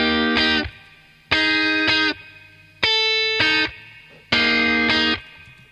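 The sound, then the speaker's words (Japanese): Distorted electric guitar plays four sustained notes, each bending slightly up and then back down. The bright, buzzy tones sound alone with brief gaps between them. “これギターだけ、ちょっと音が変わってってるんですね。一音一音。”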